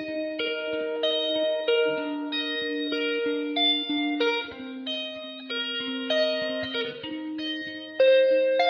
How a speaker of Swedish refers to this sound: Jag ger dig 45 sekunder av den låt som ligger etta eh, på deras Spotify-lista här.